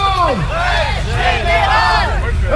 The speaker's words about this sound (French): Et puis ça y est, il fait nuit et le cortège démarre un peu laborieusement niveau slogan, mais on se marre bien parce que le speaker du camion CGT est particulièrement en forme.